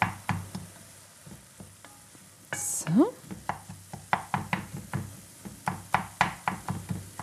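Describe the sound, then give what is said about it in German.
Champignon mushrooms, used as a meat substitute, being stirred and mashed into smaller pieces in a pot while they brown: a steady run of soft, knocking thuds and scrapes against a faint sizzle, with one brief sliding clatter and a single spoken word near the start. “Also, ich gehe wieder zum Topf, zu meinen Champignons.”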